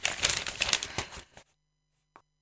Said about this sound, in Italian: prende il libro sul comodino, lo apre, cerca nervosamente la pagina giusta e legge.